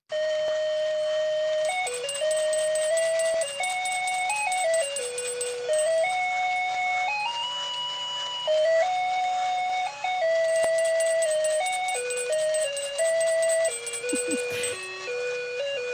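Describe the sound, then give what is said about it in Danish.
A tinny electronic jingle from a musical Christmas card that is being opened plays steadily, its thin, high square-wave melody stepping through a simple tune without pause, then a brief rustle near the end. “Når man åbner et øh, julekort.”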